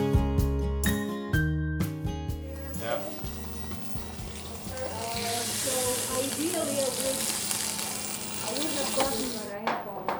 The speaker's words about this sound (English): That's the sound of students cooking in a food lab at Indiana University in the geography department.